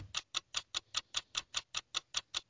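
A ticking clock timer runs during a timed quiz round, beating out a steady, even rhythm of crisp ticks, about five per second, clear with no voices.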